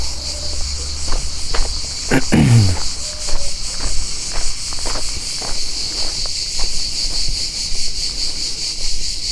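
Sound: cicadas chirping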